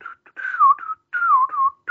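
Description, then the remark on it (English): Someone whistles a short song melody, two clear phrases of gliding pitch separated by a brief pause, with no talking. “That's the one with the whistling.”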